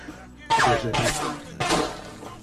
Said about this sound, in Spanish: Escucharon el disparo que era Michael.